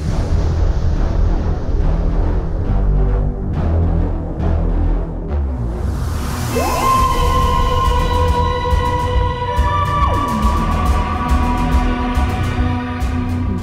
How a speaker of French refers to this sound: Est-ce que je mets le générique maintenant Ah oui, s'il te plaît. Ah oui, parce que. Eh, je t'en prie. Je l'aime beaucoup, je l'aime beaucoup le générique, cette version. On écoute ça.